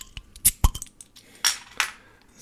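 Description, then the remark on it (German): A beer bottle being opened: a few sharp metallic clicks and clinks, then two brief hissing bursts, moderately loud with no talking. “Ich mache mal auf.”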